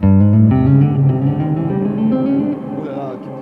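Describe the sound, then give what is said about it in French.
An electric guitar plays a short run of loud, sustained notes drenched in heavy reverb, each tone blurring into a lingering wash that slowly fades toward the end. “Bienvenue dans la reverb qu'est-ce qui se passe Voilà.”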